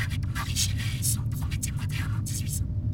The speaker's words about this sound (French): Voilà, j'arrive près du signal bourré de parasites que le Nozomi avait capté. Ça ressemblait à peu près à ça.